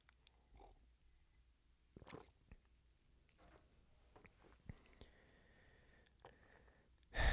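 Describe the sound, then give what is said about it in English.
Quiet mouth sounds of someone sipping coffee: soft slurps, small wet clicks and a swallow, with a faint thin whistle-like slurp midway, ending in a louder breathy burst. No talking. “Sip of coffee.”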